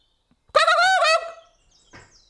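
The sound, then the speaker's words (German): A voice imitates a cuckoo's call with a single loud, warbling, wavering hoot, followed by a brief pause and a faint short breathy sound. “Hier wohnt der Kuckuck.”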